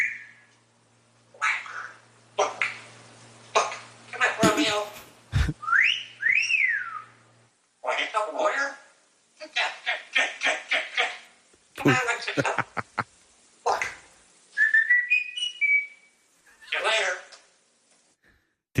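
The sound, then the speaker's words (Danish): Odd, warbling whistles rise and fall in short bursts, mixed with choppy vocal yelps and squeaks, sounding like a voice imitating a strange whistling call. “mærkelig fløjtelyd.”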